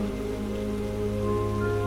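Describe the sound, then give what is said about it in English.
Steady rain patters continuously on a hard surface, an even wash of droplets at constant volume, with a soft sustained tonal hum lying underneath. “The sound of the rain begins to soothe your body and your mind.”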